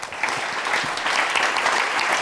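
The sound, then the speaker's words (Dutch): An audience claps steadily for Maxime Februari at the end of a conversation, a dense wash of many hands clapping at once that stays loud and even from start to finish with no voices. “Dames en heren, mag ik een groot applaus Maxime Februari.”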